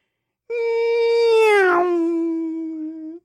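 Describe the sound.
A person imitates a Formula One V10 engine, holding a loud, steady high-pitched whine for about three seconds, with one abrupt pitch break partway through like a gear change.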